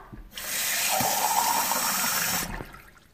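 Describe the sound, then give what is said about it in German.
Water rushes steadily for about two seconds, a full hiss like a tap running into a cup or jar, then stops abruptly, as water is fetched for painting eggs with watercolours. No one speaks. “Ich hole jetzt meinen Malkasten und öffne ihn und hole mir Wasser.”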